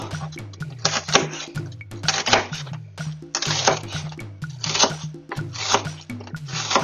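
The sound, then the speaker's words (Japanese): Brisk, repeated kitchen-knife strokes chop through crisp celery on a wooden cutting board, a steady tapping rhythm in short bursts with brief pauses, fairly loud, with faint tonal background underneath and no talking. “で、これもトントントンと。”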